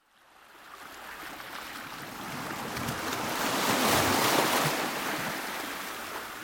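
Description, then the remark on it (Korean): Ocean waves roll in and break with a broad, hissing rush that swells to a peak around the middle, then slowly eases. No voices, just steady surf noise. “수면 위에 앉아 지구의 끝을 바라보며 파도를 기다리는 우리.”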